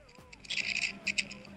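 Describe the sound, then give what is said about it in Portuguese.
A rough scraping noise, as if someone is scraping something, in short repeated strokes, coming in two quick bursts, moderately quiet, with no voices over it. “É, parece que tem alguém raspando.”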